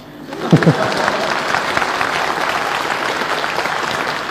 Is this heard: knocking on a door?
no